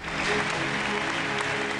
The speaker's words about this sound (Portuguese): Com muitos aplausos, foi assim que a comissária da concorrência da União Europeia foi recebida em um dos maiores eventos tecnológicos do mundo.